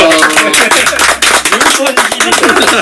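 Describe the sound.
Loud, steady applause welcoming a special New Year guest from Berkeley, California: a dense patter of many hands clapping continuously for about three seconds, with voices talking over and through it.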